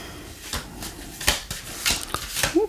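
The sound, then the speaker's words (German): Tarot cards being shuffled: a handful of soft, papery flicks and snaps at an irregular pace over a quiet background, with no one speaking. “Was wir hören ist Antje mischt die Karten”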